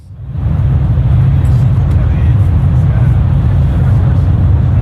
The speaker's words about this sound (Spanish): Hoy les mando la postal sonora desde el andén de una estación de tren.